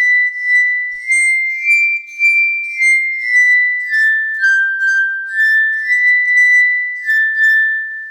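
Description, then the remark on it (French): A musical saw plays a sustained, high, ethereal tone that slides slowly up and down in pitch, with a smooth wavering shimmer. It plays alone, steady and fairly loud, with no voices. “Alors comment qu'on en joue de la scie musicale Eh ben c'est le même principe que le xylophone, figure-toi.”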